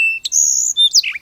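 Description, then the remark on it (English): A sparrow's regular, non-alarm song: a quick series of high, clear whistled notes and buzzy trills, bright, with no voices or other sounds around it. “That's regular, and that's alarm.”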